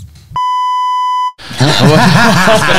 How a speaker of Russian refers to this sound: просто, я потом запикаю по-другому. А то так ничего не слышно будет